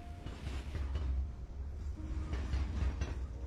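A train rolls steadily along the rails on Chinese New Year's Eve with a deep, constant rumble and faint rhythmic clacking of the wheels, filling all three and a half seconds with no voices.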